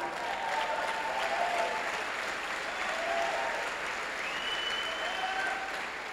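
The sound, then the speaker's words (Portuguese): A large audience applauds loudly and steadily, with scattered voices shouting "glória a Deus" over the dense clapping, continuing for the whole stretch without letting up. “Eu queria ouvir um glória a Deus forte. Mas forte, forte.”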